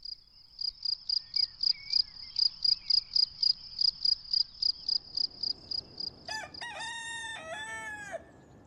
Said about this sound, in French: Le lendemain, levé par le coq, il s'étire